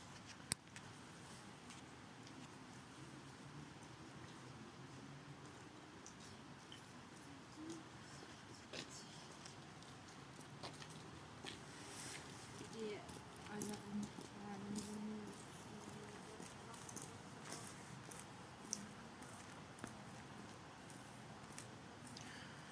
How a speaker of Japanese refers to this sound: 結構こうステレオのマイクだと前をね通り過ぎていく人の足音とかがリアルに聞こえるんじゃないかなと思いますね今一時停止せず皆様にお聞かせした次第でありますけども